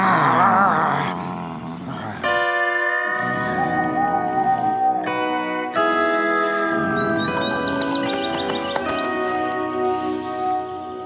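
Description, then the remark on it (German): Two dragon fathers growl at each other at night by a tree in a loud exchange of deep, rumbling snarls with harsh tonal edges, rising and falling for several seconds with no talking. “aber knurren sich weiter an.”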